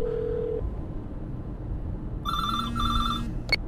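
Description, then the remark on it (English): A telephone rings in two quick electronic bursts, fairly clear, over a steady low rumble of background noise; an earlier brief tone precedes it, and no one speaks. “pick up the damn phone.”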